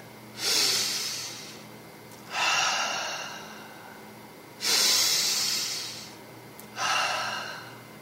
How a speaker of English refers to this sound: I sit and listen to my breathing.